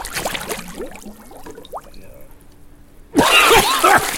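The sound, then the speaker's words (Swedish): Water splashes lightly at first, then everything goes quiet for a couple of seconds while a person stays under the water, before a loud burst of splashing and sloshing erupts as they surface. “Jag är oerhört skicklig på att vara under, under vattnet.”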